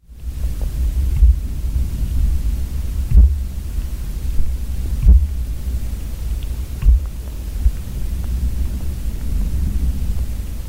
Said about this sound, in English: microphone and started banging on a tree, and you could hear the sound passing through the ground into the hydrophone.